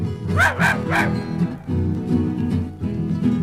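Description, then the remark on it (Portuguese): A dog barks three times in quick succession near the start, loud, over steady music that continues after the barks fade. “sai cachorro.”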